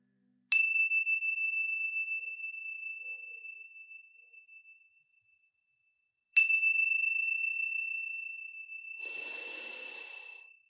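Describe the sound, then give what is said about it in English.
A meditation chime is struck twice at the close of a guided meditation, several seconds apart, each bright tone ringing out and slowly fading; a soft breath is heard near the end as the second chime lingers. “Now, wiggling your fingers, wiggling your toes, and when you hear the sounds of the chimes, gently coming back into this space.”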